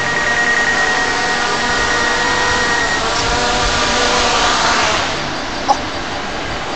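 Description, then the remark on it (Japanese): A drone's steady, high-pitched buzzing whir holds for several seconds, then softens a little as it sets down, followed by a single brief click. No voices. “静かに静かに着陸をするんです、ね、そうですねかなり静かに着陸しますこれって”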